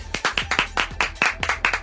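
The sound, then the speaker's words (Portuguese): Applause: a quick run of sharp hand claps, about five or six per second, fairly loud and steady, with no voices over it. “Salva de aplausos aqui então. Aplausos.”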